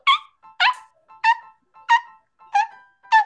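Sneakers squeak sharply on a waxed school floor, about six high, yelping chirps in a steady rhythm, each preceded by a softer little squeak, clear with no talking.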